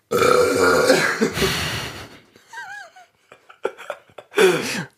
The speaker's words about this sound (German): Und rülpsen können wir auch machen. So rülps, as, äh, ASMR. So ganz sinnlich rülpsen.